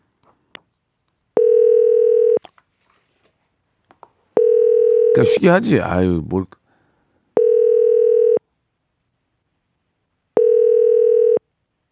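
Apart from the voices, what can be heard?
outgoing phone call ringing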